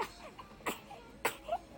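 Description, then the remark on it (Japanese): A baby fusses with short, whiny squeaks and a couple of sharper breathy bursts. The vocalizations are fairly quiet and irregular, and no one talks. “そう赤ちゃんいるんですそうなんです”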